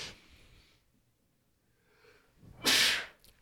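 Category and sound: human body sound, sneeze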